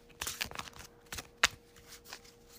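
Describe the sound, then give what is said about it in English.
Shuffling of a deck of large cards: a quick flurry of papery riffles and slaps, with one sharp snap partway through, then softer rustling as the cards settle. “As you can hear, I'm shuffling the cards.”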